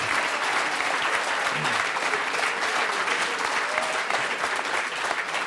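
Steady audience applause at a charity event fills the whole stretch, a dense patter of many hands clapping at an even, fairly loud level with a faint murmur of voices beneath.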